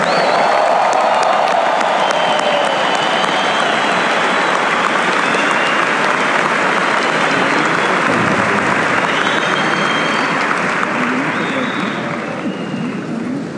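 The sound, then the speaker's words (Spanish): Loud, sustained applause from a large audience, a dense wash of clapping with some cheering mixed in, holding steady for the whole stretch and easing only slightly at the end. “El mejor aplauso para todos ustedes.”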